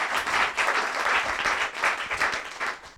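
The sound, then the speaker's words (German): An audience at the Netzpolitischer Abend AT, hosted at the MetaLab, applauds steadily, a dense wash of many hands clapping at once that holds a fairly even level before thinning out slightly at the end. “Applaus.”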